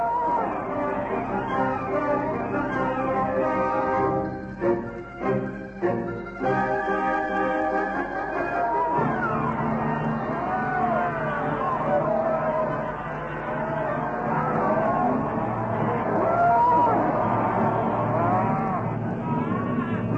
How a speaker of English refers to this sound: Cattle and men everywhere. Cattle tearing about the place with natives in front of them. Natives burbling about with cattle ahead.